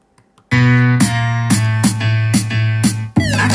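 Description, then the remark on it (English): A loud hip hop beat from a female rapper's track plays on its own, with heavy sustained bass tones and sharp drum hits landing in a steady rhythm about twice a second. “Hearing her hip hop music, hearing her express herself.”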